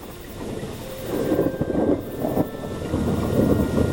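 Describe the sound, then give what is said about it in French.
Deep, rolling thunder rumbles through a storm, swelling and surging in several heavy waves with a steady wash of wind or rain noise underneath, fairly loud. “Un jour qu'il rentrait avec son troupeau, ils furent surpris par un orage.”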